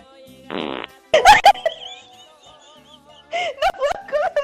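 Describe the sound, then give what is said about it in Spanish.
A run of cartoonish fart sound effects: a short breathy puff, then loud sputtering, wobbling rasps in two bursts, with a quieter stretch between them. “Su Toluca se está desinflando peor que yo cuando como frijoles.”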